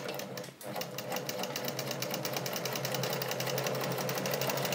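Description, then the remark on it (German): A sewing machine in a sewing department runs steadily, stitching the second side of a seam, its needle hammering out a fast, even stitching rhythm after a brief pause at the start, with no one speaking. “So, ich mache auch gleich die zweite Seite, wenn ich schon hier in der Nähabteilung sitze gerade.”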